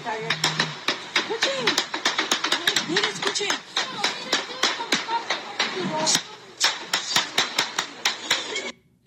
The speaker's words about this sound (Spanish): Eso que usted oye que hace pam, pam, pam, eran tiros desde desde, desde, un terreno en Colombia hacia el cielo, empezaron a caerle a tiros al helicóptero donde iba el presidente de Colombia,